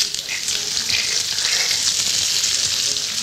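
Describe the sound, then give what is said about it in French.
Onions and peppers sizzle steadily in a frying pan over fairly high heat, a dense crackling hiss that holds at an even loudness throughout with no voices. “J'aime ça parce que c'est les oignons qui sont en train de mourir, on les entend.”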